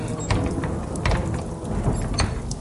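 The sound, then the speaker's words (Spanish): The heavy bronze door of a marble tomb grinds open inward during a hailstorm, with a deep, rumbling scrape and a few sharp clunks, loud throughout, with no voices. “Pero al apoyarme contra la puerta, esta se abrió hacia adentro.”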